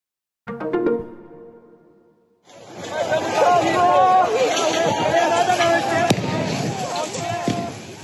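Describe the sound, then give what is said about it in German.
A large crowd of thousands of supporters of former Brazilian president Bolsonaro, storming the government quarter in Brasília on a Sunday, roars and shouts in a dense, loud, continuous din, preceded by a brief tonal call and a short lull. “Was man da hört, sind die Anhänger des brasilianischen Ex-Präsidenten Bolsonaro.”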